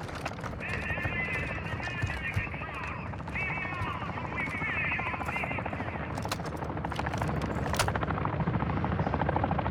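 A video game helicopter flies close by, its rotor a loud, steady thumping roar that fills the whole clip, with brief chirping game effects and sharp bursts layered over it.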